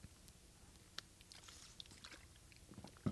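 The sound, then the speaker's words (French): Quiet mouth sounds of someone taking a small sip of water: small wet clicks and a soft swallow, ending in a slightly louder gulp. No one speaks. “Là, je m'en vais dans l'eau en ce moment parce que je me prends une petite gorgée.”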